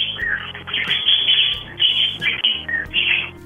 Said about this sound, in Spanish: Oye, tienes muchos pajaritos, ¿verdad? Sí, muchos.